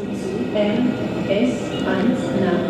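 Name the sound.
train arriving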